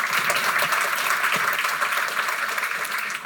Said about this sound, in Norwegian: Så jeg syns vi skal gi en god applaus til den gjengen nå.